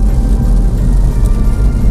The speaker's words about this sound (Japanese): 今50キロで走ってて